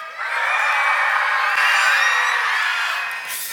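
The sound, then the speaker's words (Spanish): A crowd of children at a Sunday general meeting shouting together at full volume on a count of three, a sustained high-pitched collective yell that holds steady for about three seconds before easing off slightly at the end. “Todos los niños, todos los que son niños, un grito bien fuerte a la cuenta de tres.”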